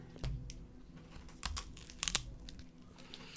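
Crunchy bites into Ostrim and habanero Strive snack sticks: several sharp, crackling snaps spread over a few seconds, with a louder burst near the middle, followed by faint chewing crunches and no talking.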